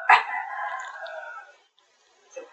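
A goose honks once, loud and close, in a long brassy call that tails off, then a brief quieter honk follows after a short pause. No one speaks.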